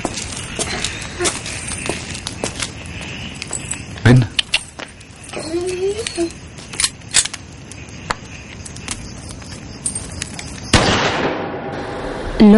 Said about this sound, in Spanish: se sobresalta al oír el disparo. Su padre mata al perro de un tiro en la sien.